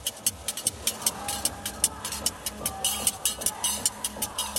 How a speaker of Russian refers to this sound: Этот своеобразный звук производят ножницы, которыми торговец отрезает кусочки йод. Такой товар легко встретить на любом сельском рынке.